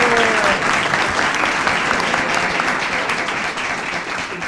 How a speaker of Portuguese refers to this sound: Quem crê aí dá uma salva de palmas.